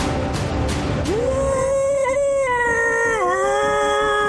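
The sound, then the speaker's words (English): A monster, reacting in pain, lets out a loud, drawn-out roar with a wavering, howl-like pitch that rises, holds, then dips near the end, after a few sharp clicks at the start. No one speaks. “Because this thing is terrifying. I mean, it's pretty scary, and it just lets out an incredible roar.”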